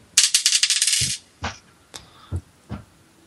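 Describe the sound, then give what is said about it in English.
The second of five dice rolled rattles rapidly in a burst of sharp clicks, then drops and bounces on a hard table with a few separate, fading knocks. Fairly loud, with no voices. “Dice number two coming up.”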